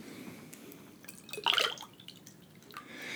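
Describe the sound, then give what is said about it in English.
Vodka is poured into a glass: a quiet trickle and a brief, brighter splash midway, then soft dripping against a faint background hiss. “I gave you a pretty good pour of the vodka”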